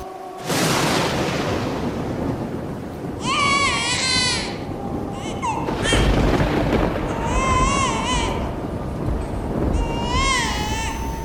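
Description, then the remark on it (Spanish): A baby cries in a series of high, wavering wails from a ravine, pausing briefly between each one, set against a constant deep rumbling roar that fills the background throughout. “Se cuenta que una vez, pasando por el tramo que le daba escalofríos, escuchó el llanto de un, de un niño.”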